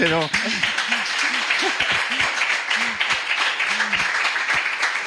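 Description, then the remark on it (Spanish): A crowd applauds steadily throughout, a dense, loud wash of clapping with cheering voices mixed in over the top. “pues otro aplauso, ¿no? Otro aplauso.”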